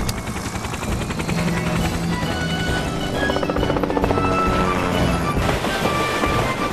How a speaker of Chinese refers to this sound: 快看上面，汤姆开着直升飞机来了。